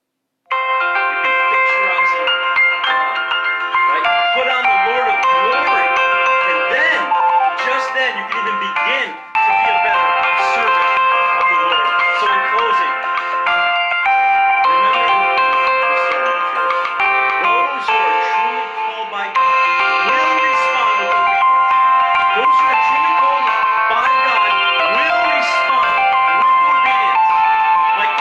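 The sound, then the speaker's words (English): A loud, bright electronic phone ringtone melody from an incoming call plays continuously for nearly half a minute, its chiming notes repeating with only a brief break partway through. “Somebody just called and it kind of knocked me out there out of the Facebook.”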